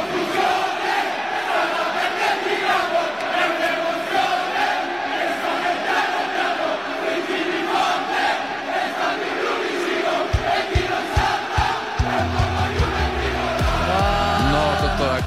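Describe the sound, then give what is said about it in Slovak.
A massive crowd of football fans at San Siro stadium in Italy, during an Italian league match, sings a chant in unison, loud and dense, with a rhythmic pulse; near the end, clapping or drumming and a brighter melodic line join in. “znie takto v podaní fanúšikov na talianskom štadióne San Siro počas aktuálnej talianskej ligy.”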